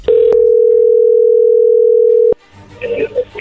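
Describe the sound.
A loud, steady telephone ringing tone of a phone call hums at one low-mid pitch for about two seconds, then cuts off abruptly and a voice begins speaking over faint line noise.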